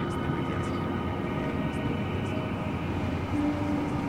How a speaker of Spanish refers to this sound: Escucho el motor de algún auto a lo lejos.